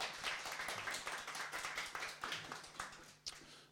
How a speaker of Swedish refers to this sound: Kan vi få lite uppmuntrande applåd innan vi börjar?